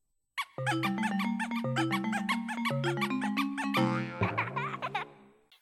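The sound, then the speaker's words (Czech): A GameCube alternate startup sound, triggered by holding the Z button on the controller while the console powers on, plays alone: a bright, bouncy chiming jingle with squeaky, giggling baby-like voices, ending in a wobbly flourish that fades out after about five seconds. “když před tím startupovým zvukem po zapnutí konzole zmačkneš tlačítko Z na uh, eh, ovladači”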